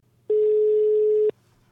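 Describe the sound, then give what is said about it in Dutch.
A single steady, mid-pitched ringback tone from a phone call, about one second long, starting and stopping abruptly, then a faint low hum with no voices. “dus eh, ja, laten we, hem, laten we hem gaan bellen.”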